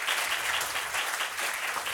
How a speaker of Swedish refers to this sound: Ge honom en varm applåd.